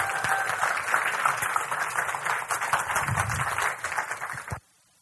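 A crowd applauds steadily, welcoming a woman coming up to give a testimony, with dense, overlapping claps for about four and a half seconds, then the clapping stops abruptly into near silence.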